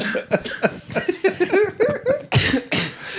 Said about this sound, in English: Focus. it's making me cough more.